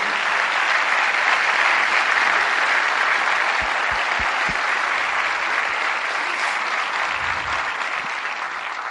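An audience applauds loudly and steadily, a dense wash of clapping that holds for the whole stretch and eases off only slightly toward the end, with a few low thumps mixed in.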